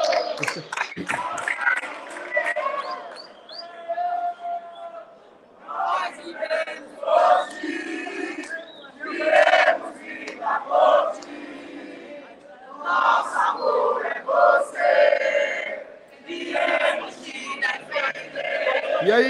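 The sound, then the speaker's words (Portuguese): A large stadium crowd in São Paulo chants "Leão" loudly in repeated rhythmic bursts, many voices roaring together with brief dips between surges, filling the whole space. “Leão! Leão! Eu não estou ouvindo nada!”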